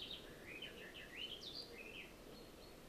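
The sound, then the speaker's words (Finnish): A small songbird sings a quick, warbling run of high chirps and trills, fairly faint over a steady outdoor background hiss, with no one talking. “Nyt tuli joku ihana livertäjä tuohon.”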